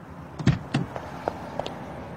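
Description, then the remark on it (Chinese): A Mercedes-Benz car's central locking button is pressed by the driver after braking to a stop: two solid mechanical clunks in quick succession, followed by a few lighter, sharper clicks, all brief and with no one speaking. “欧阳子豪一脚刹车站住，面无表情按下中控键。”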